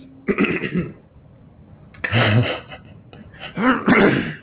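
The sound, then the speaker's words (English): A loud throat clearing as a vocal warm-up, repeated in three rough, raspy bursts with short pauses between them, heard on its own with no talking. “That's called clearing my throat.”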